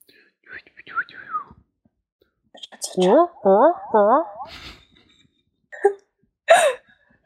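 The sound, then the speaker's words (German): A voice imitates jungle and insect noises as outro music: soft whispery chirps, then four quick warbling, rising calls in a row, followed by hissy buzzes and a couple of sharp clicks, fairly loud. “Äh, jetzt ähm, müssen sich die Live-Hörer theoretisch hier die Outro-Musik vorstellen. Dschungelgeräusche. Insekten.”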